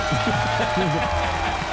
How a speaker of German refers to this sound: das sollen sogar zwei Punkte sein, äh, spielen wir nur einen Applaus